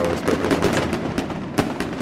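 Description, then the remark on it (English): Fireworks crackle and pop in a dense, steady barrage, with a sharper burst standing out near the end; the sound is muffled, with no one talking over it. “if you want to get those fireworks ready”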